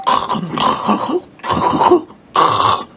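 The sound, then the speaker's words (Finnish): A person imitates snoring with their voice: three rough, rasping bursts, each about a second long, separated by short pauses, loud and gravelly with a throaty rattle. “Katsojat voi lähteä mukaan tähän testiin, eli, eli mä teen kuorsausääne nyt täältä.”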